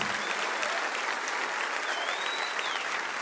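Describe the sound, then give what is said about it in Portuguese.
A church audience applauds strongly for people leaving the service: dense, steady clapping from many hands fills the whole clip at an even, sustained level, with a faint whistle-like tone rising briefly partway through. “Vamos aplaudi-los bem forte, irmãos, por favor.”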